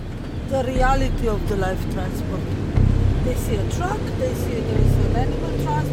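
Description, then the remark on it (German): Steady low road rumble of cars driving at speed on a motorway heading west, following a truck on the long drive from the Czech Republic to France, with engine drone swelling slightly at moments; muffled voices talk over the continuous traffic noise. “fährt auf die Autobahn Richtung Westen. Baumgärtner, Dronjic und die übrigen Beobachter fahren dem Lastwagen in zwei Autos mit Abstand hinterher”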